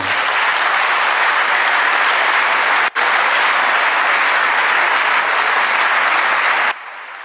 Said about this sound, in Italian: Vabbè, si gode l'applauso, contento lui, vediamo se adesso riparte.